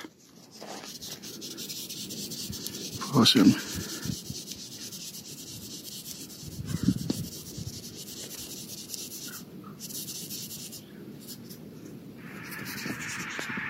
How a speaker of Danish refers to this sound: Vi er i Nørlund Plantage og har lige fundet en træhorn skarnbasse. Og den laver altså den mest fantastiske lyd, hvis man samler den op.